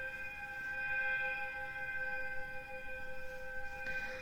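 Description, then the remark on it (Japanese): A long, steady train whistle from nearby railway tracks holds a chord of bright tones with no break, staying loud and even from start to finish, with no voices over it. “そこですね、ちょっと、近くの、あの、線路から、すごい汽笛が長かったですね。”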